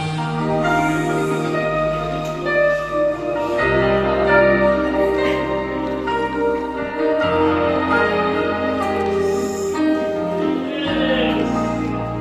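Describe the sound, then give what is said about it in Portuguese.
Church bells ring out loudly and continuously, rich overlapping tones sustaining and shifting every few seconds, with no speech over them. “Vamos louvar o sino aí?”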